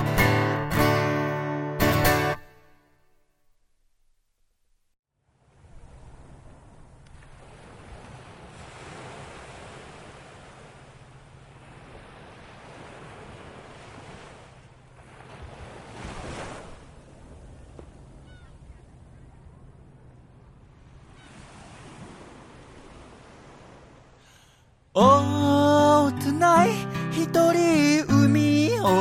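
Ocean waves wash in on a steady roar, swelling and receding every few seconds in soft surges, framed by a short burst of music at the start and music returning at the end.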